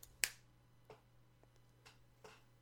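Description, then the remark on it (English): A sharp finger snap rings out first, followed by several softer, fainter snaps at irregular intervals over a steady low hum, with no talking. “Are you gonna snap your fingers between everything?”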